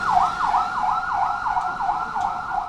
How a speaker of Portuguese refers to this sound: Em Colunas, as temíveis viaturas Mahindras acionam sirenes.